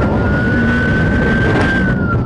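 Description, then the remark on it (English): A police car siren wails in a steady, high, drawn-out tone that rises slightly and then dips, over a loud continuous rumble of engine and road noise, during a police pursuit of a fleeing driver. “Again, just a heads up some more police sirens in this clip.”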